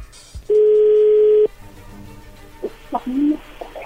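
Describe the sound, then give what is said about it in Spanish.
A phone call connecting: one loud, steady low-pitched tone holds for about a second, then cuts off, followed by faint muffled line noise and brief chirpy bits. “A ver, parece que ya entró la llamada, no hagan ruido.”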